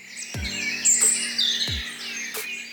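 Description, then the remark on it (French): Several birds chirp and twitter in spring in a busy, overlapping chorus of high, bright calls, steady throughout, with a couple of soft low thumps underneath and no one talking; a sound effect used in episodes of Bonjour PPC. “Ces oiseaux au printemps, mais aussi la pluie, le vent, la neige, qui rendent chacun des épisodes plus vivants, plus proches de nous.”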